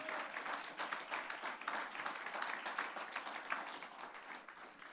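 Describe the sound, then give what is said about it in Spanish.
An audience applauds steadily in praise to the Lord after a prayer, a dense, continuous wash of many hands clapping at an even loudness for several seconds, with no voices standing out. “Fuertes aplausos de alabanza al Señor.”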